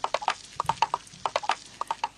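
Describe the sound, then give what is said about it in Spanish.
A horse being ridden in the rain, its hooves clip-clopping in a quick, steady trotting rhythm, each knock crisp and hollow-sounding, clear with nothing else competing. “Están montando a caballo en la lluvia.”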